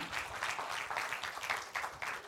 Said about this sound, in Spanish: Un aplauso fuerte al Señor, déselo fuerte al Señor.